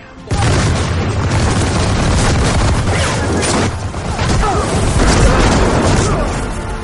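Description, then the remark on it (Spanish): Cannon fire booms again and again in a naval battle between galleys, loud overlapping blasts and deep rumbling forming a dense, continuous roar that barely lets up from start to finish. “Los cañones tronaban, las astillas volaban por doquier,”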